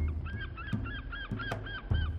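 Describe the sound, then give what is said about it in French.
Seagulls call over and over in quick, squawking cries, several in a row at moderate volume, with a low, steady rumble like surf or wind beneath them. “On racontait que les mouettes y venaient nombreuses pour mourir.”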